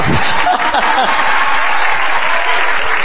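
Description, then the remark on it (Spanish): A crowd claps steadily, a dense wash of many hands with no distinct beats, loud and sustained for a few seconds, while a voice faintly talks beneath it at the start. “Aló, ahí se aplauden todos, ¿no?”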